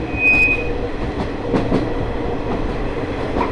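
The Ai Yoshinogawa Torokko sightseeing trolley train on the Tokushima Line in Japan, running from Awa-Ikeda to Sadamitsu, rumbles steadily along the rails with a continuous low roar, a brief high metallic squeal near the start and a few faint clacks from the wheels. No one speaks.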